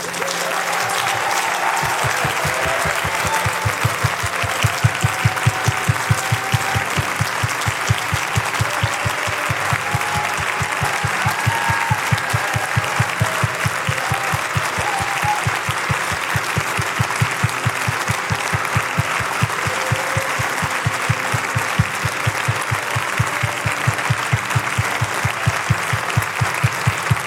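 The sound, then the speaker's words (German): Loud, sustained applause from a large church audience, dense clapping that swells in after a brief quiet start and keeps going steadily for nearly half a minute. “mal einen richtig großen Applaus geben.”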